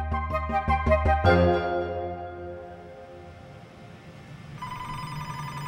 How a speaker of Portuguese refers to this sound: Rio de Janeiro, 1994. O publicitário Eduardo Fischer desliga o telefone.